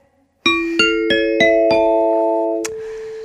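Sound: ding-dong-dang correct answer chime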